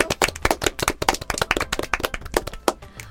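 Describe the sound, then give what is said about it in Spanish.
A small group claps by hand for about three seconds, sharp, uneven claps overlapping in a quick, lively patter with no talking over it. “Un aplauso. Un aplauso.”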